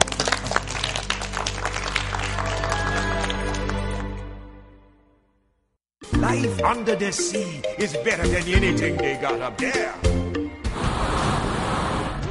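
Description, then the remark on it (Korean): A lecture audience claps steadily in thanks to Professor Lee Jun-young after his talk forecasting trends for the new year at the end of 2020, a dense, crackling burst for about four seconds, then the applause fades into silence before unrelated tonal sound begins. “귀한 말씀 전해주신 이준영 교수님께 다시 한번 감사의 박수를 보내드립니다.”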